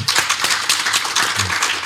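An audience applauds a guest who gave a session, a dense wash of many hands clapping at a fairly loud, even level throughout, with no voices breaking through.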